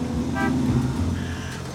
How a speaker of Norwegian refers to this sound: Jeg stoppa på tunet og ga et kort støt til bilhornet. Det skremte et par kråker, men utløste ellers ingen reaksjon.